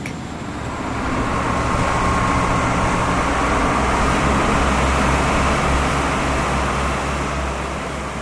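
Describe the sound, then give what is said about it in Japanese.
A motorboat roars steadily across the Caribbean Sea on the way to the San Blas Islands, its low engine drone constant beneath a broad wash of rushing, splashing spray, loud throughout with no voices. “2時間かけてたどり着いた船着き場からボートに乗り込む水しぶきを上げながらカリブ海を突き進んでいく”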